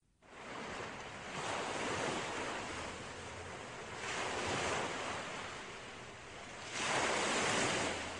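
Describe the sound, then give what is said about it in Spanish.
Ocean waves roll in and break on the shore in a steady wash of surf as the sea rises, swelling louder every few seconds, with a breezy rush underneath and no voices. “Todo el relato fluyó lentamente, y el mar estaba creciendo, creciendo, como crecía mi ansiedad por conocer lo que a la postre había ocurrido.”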